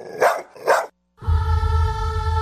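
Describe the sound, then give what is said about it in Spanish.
A dog barks twice in quick succession, loud, then a steady musical jingle with a low thumping bass takes over, on the comedy show El show del perro chato café. “En España, el canino marrón hocico acortado. En México, el perro chato café.”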